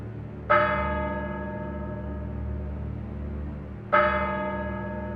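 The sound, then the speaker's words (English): A clock bell strikes twice, about three and a half seconds apart, each deep, resonant chime ringing out and slowly fading over a low background hum, with no one speaking. “As the clock strikes 13, it's Tuesday, the 31st of October.”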